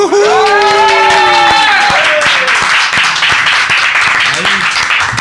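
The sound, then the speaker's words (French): A studio audience of the Radio Delta show Les pierres brutes breaks into loud, dense applause for its fourth broadcast, keeping up steadily for several seconds, opening with a drawn-out vocal cheer rising over the clapping. “eh, les pierres brutes, quatrième émission ce soir, et je pense que ça vaut des applaudissements, n'est-ce pas”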